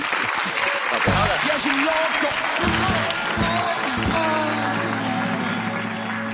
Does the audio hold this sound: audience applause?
yes